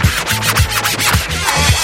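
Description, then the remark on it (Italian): Turntable scratching cuts back and forth in quick, rhythmic bursts over a thumping low beat, the scratches sweeping up and down in pitch, loud and continuous with no talking. “Con questa base non si può fare dello scratch. Porta lo scratch.”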